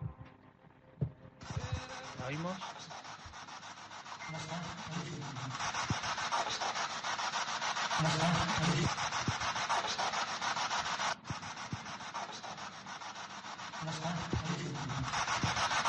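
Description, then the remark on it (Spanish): Loud, continuous hiss of radio static from a Spirit Box device starts after a second and runs steadily to the end, with brief choppy fragments and low tonal blips flickering through as the scanning sweeps. “para, la gente que lo está escuchando, ese sonido de la eh, Spirit Box, ¿no?”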